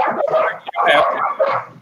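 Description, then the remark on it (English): Several dogs snarl and bark in a rough, overlapping dog fight, with yips and growls crowding together for a couple of seconds. “you got a dog fight going on over there.”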